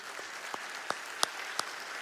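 An audience applauds for the Lord Jesus in a steady wash of clapping, with a few sharper, louder claps popping out at an even pace above the crowd. No voices can be heard.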